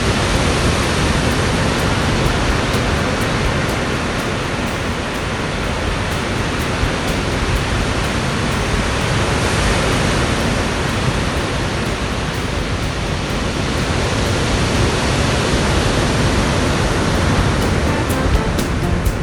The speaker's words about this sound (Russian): И как вы думаете, что я вам записал там? Я записал, нет, не звук вамбата и не звук даже кукабары. Я записал вам звук настоящей океанской волны. Волны.